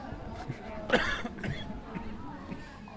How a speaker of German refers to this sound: hustet